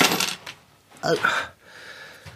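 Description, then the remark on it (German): A small metal key is set down on a hard desk with a short jingling clatter and a bright ringing clink, after a brief murmur of speech. “Und der Schlüssel die auf den Schreibtisch.”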